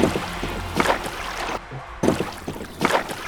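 Oars dip and pull through water in a slow, steady rhythm, each stroke a soft splashing swish, over a low continuous rumble of wind and open water, with no voices.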